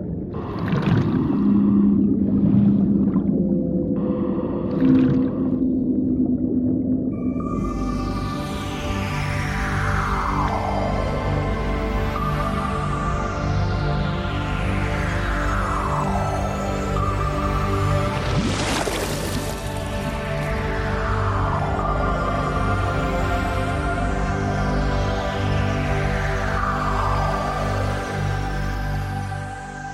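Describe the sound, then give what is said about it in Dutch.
A blue whale sings underwater: long, eerie descending moans repeat every few seconds over a constant deep rumble, with no voices present. “Ik ga gewoon nog even genieten van dit magische onderwaterconcert.”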